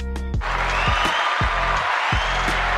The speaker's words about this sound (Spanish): Ya se acabó el aplauso. ¿Pongo otro aplauso?